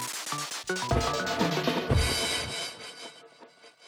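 A photo being torn apart: a loud, rough ripping noise that rises sharply, crackles unevenly for about two seconds, then trails off into a softer rustle.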